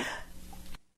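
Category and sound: human body sound, sneeze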